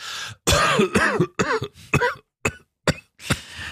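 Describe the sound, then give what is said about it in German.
A string of deliberately put-on coughs, practised to sound convincingly ill for a sick note obtained by phone, roughly seven loud, throaty bursts in an uneven rhythm, some drawn out with a voiced, groaning edge, then shorter hacks toward the end. “Viele üben bereits ein überzeugendes”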